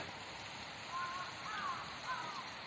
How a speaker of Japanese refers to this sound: あの井の頭公園の池の周りのベンチで今座りながら撮ってるんですけど噴水の音が聞こえますかね弁天様のあたりですね